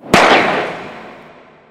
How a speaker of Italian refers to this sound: Un altro sparo, un'altra partenza, un altro imbroglio. È il 1967 e questa volta c'è un'altra donna che partecipa alla maratona in quanto orgogliosa di essere tale.